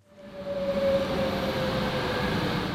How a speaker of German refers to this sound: 7.44 Uhr in Lausanne. Der Doppelstockzug fährt auf Gleis 1 ein.